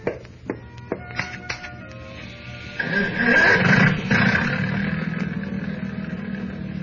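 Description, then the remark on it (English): A few sharp clicks and clanks, then a boat's motor catches and settles into a steady, loud, rumbling drone that keeps running until the end. “Wait till you hear that motor purr.”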